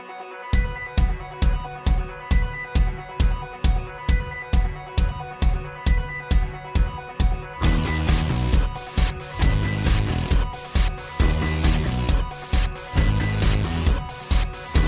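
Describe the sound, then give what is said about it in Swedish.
Upbeat pop-rock song laced with bright chiptune-style synth tones over a steady, driving beat; the full band kicks in about halfway through, making it louder and denser, with no vocals yet. “Ett band som blandar poprock med chipmusik på ett väldigt glatt och ett väldigt lättsamt sätt.”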